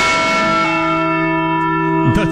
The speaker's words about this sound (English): that we went with the Liberty Bell there? Yeah. Okay. Sometimes it's the Eagle, sometimes it's the Liberty Bell.